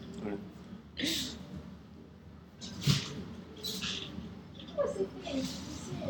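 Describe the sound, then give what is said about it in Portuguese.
A plump female cat rummages inside a cupboard, making scratchy rustles and light knocks in three or four short, irregular bursts separated by quieter pauses. “Espera que tem um gato aqui mexendo.”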